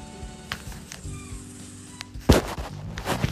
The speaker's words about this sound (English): Hear this? Sorry. Sorry about that, and that is sound of gunshots. Just firing, just randomly. Pow, pow, pow.